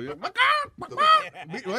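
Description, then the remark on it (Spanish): A loud human voice lets out a few rising, squawky bursts that sound like a clucking hen, a quick run of several honking cackles in under two seconds. “sonó como una gallina.”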